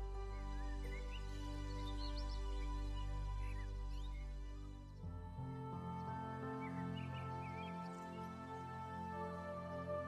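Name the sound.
birds chirping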